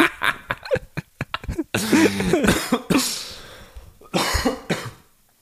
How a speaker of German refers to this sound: also, Husten akustisch, ja, genau. Akustisches Zeichen. Ähm, akustisches Zeichen, würde ich sagen.